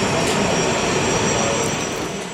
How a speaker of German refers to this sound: Es ist das erste Flugzeug aus Vietnam, das in Rostock-Lage landet. Nach knapp zwölf Stunden ist der Passagierflieger aus Hanoi angekommen.